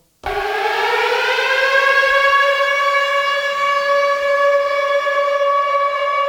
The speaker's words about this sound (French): Ah, la sirène, on se croirait dans Rush.